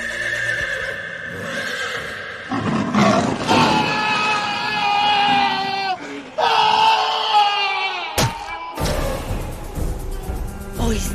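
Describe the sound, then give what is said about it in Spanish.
At night, a horrible scream rings out from a house by an orchard, and several nearby dogs howl in response in long, wavering, overlapping wails that fill the air, ending in a harsh burst of noisy commotion. “Esa misma noche, un grito horrible proveniente de la casa del huerto irrumpió el silencio y provocó el aullido de los perros de la cercanía.”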